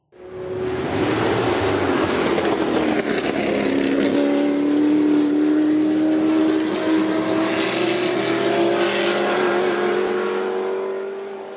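A Ford GT40 race car engine roars loudly and steadily, its pitch climbing and shifting as it revs hard. The sound is continuous, with no talking, and eases off slightly at the end.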